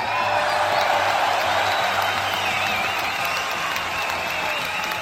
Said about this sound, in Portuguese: Hoje nós vamos falar de Quentin Tarantino. Sensacional, parabéns. Palmas.